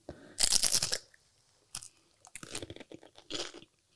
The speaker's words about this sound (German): Knickebrote. Und auf dem einen sind die von mir geliebten halbgetrockneten Tomaten und auf dem anderen ist Speckmarmelade mit Camembert. Und ich glaube, ich werde damit anfangen. Ich auch. Es wird jetzt knusprig. Mhm. Lass uns mal zusammen abbeißen.